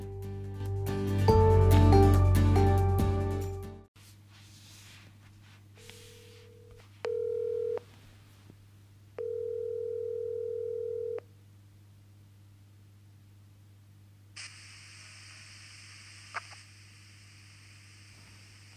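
A loud noisy burst gives way to the ringing tone of a telephone call to a veterinarian in Australia: a couple of short beeps, then one longer steady tone over a low hum, followed by a faint hiss. No one speaks.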